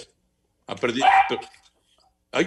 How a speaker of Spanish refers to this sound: nada más ladró el perrito y Anselmín, ¿ya se lo comieron? más ladró el perrito. ¿Se habrá comido el perrito de Anselmo? si alguien sabe traducir los ladridos de ese perro, que nos digan, por favor.